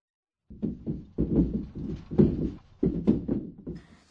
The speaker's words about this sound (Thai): เสียงเครื่องเรือนสั่นหรือเขย่าในขณะเกิดแผ่นดินไหวใช่ไหมคะครับในญี่ปุ่นมีคำอธิบายเสียงนี้ว่าอย่างนี้ครับกาตากาตากาตากาตาคำนี้ใช้อธิบายเมื่อของเช่น ชั้น วางหรือโต๊ะ สั่นหรือเขย่าต่อเนื่อง